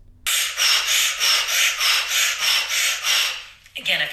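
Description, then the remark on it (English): Rapid, forceful nasal breath-of-fire breathing in a steady pumping rhythm, about a dozen quick hissing breaths, running for several seconds before breaking off abruptly; done with hands in fists and a backstroke arm motion. “The breath is a heavy breath of fire.”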